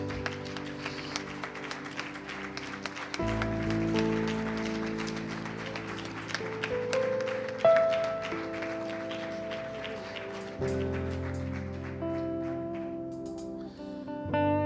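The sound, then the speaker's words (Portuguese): A church audience applauds for Jesus after a prayer in a dense, steady wash of clapping that carries on for the whole stretch, layered over sustained keyboard chords that shift a few times. “Aplauda Jesus, queridos.”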